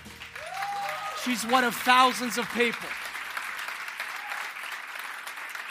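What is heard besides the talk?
audience applause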